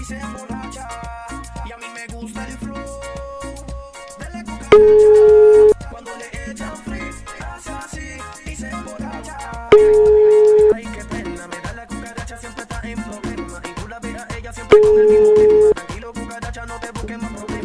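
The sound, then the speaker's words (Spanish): A telephone ringback tone sounds three times as a call is being placed, each a steady one-second beep about five seconds apart, loud and clear over continuous background music. “Estamos llamando.”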